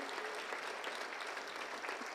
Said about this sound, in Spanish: ¿Podemos dar un aplauso al Señor? Amén.